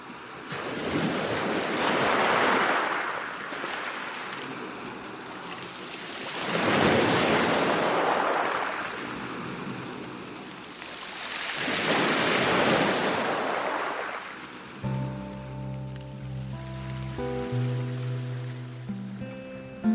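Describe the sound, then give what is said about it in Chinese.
Ocean waves roll in on a vast sea past midnight as the tide slowly rises, three slow, loud swells of hissing surf, each rising and fading over a few seconds, before soft sustained music tones take over in the final seconds. “千万星辰奇光，微微波浪，浩瀚海面泛起了千亿的浮云灵光。”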